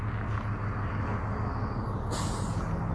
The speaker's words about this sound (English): And now it's just a matter of uh, getting across. There's a lot of traffic right here. Uh, other parents dropping their kids off, school buses.